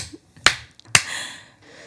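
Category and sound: human body sound, hand clapping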